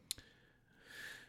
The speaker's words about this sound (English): Oh, bless you.